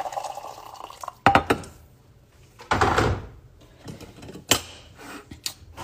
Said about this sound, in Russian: И специальный чайник, такой вот с носиком, чтобы вода наливалась тонкой струйкой. Наливаю сюда кипяток.